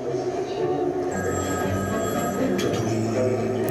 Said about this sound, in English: So this is a video. the phone's ringing in the middle of a train station.